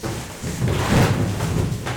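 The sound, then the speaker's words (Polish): A Samsung cardboard box being folded and pressed into a chair, a continuous run of scraping, crinkling rustles and soft thumps, with no talking during it. “I teraz będę siedział na tym kartonie, bo tworzyłem sobie krzesło.”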